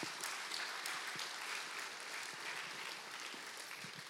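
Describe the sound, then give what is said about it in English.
Sustained applause from a large crowd, a dense steady wash of many hands clapping at once that continues without a break, loud. “Man, give it up for those guys again, man.”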